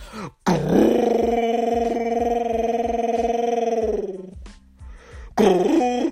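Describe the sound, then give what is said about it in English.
A person imitates a rumbling, growling hungry stomach: one long, low, gravelly groan lasting several seconds, then a short second growl starting at the end, loud. “Meanwhile, your tummy sounds like a fucking monster from Monster Hunters.”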